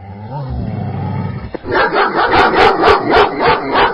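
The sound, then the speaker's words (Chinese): A group of Tibetan mastiffs barking from inside a neighbour's home at night after a knock on the door: a low rumbling growl, then a rapid run of loud, deep, booming barks in a steady, insistent rhythm, with no voices. “小王也是直到那个时候才明白，自己的邻居那是一群藏獒啊。”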